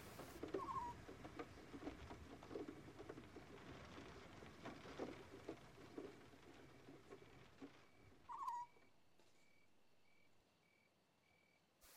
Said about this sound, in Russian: Нет места лучше, чем эта терраса, чтобы переждать здесь дождь. Капли стучат по деревянным доскам, а также оставляют круги на воде.